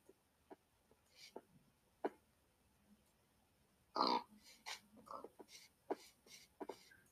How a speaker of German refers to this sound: Oha, da okay, da sind ein paar Sch da sind drei Schweinchen. Das ist gut.